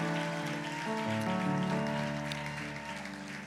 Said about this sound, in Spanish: Dale un aplauso al Señor. Aleluya. Dale bien fuerte el aplauso al Señor. Amén.